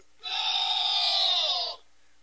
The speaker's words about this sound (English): I was trying to look for an audience applause, but I found the goal button. So there you go. That's that's a goal for the FBI. They finally scored one.